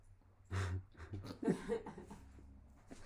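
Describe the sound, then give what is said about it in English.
A dog gives a short, high whimper amid quick, breathy panting and snuffling, a few uneven bursts over about three seconds with no talking. “go lay down, dog.”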